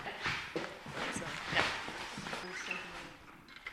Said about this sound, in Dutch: Ja, hier stappen we het vaasvormige gazon op.